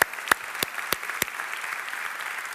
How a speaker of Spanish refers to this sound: ¿Cómo ven si ahorita les damos un fuerte aplauso a los que nos visitan por primera vez?